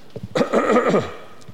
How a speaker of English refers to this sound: So you're just going to cough.